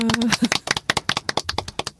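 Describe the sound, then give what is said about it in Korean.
Hands clap in a quick, uneven burst, sharp slaps tumbling over one another for two seconds, like a few people applauding. A short voiced exclamation rises at the start. “박수시고 시작할까요?”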